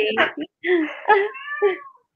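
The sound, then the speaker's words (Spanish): A cat meows several times in quick succession, fairly loud, with drawn-out, wavering cries separated by brief pauses. “ya le, de comer gato.”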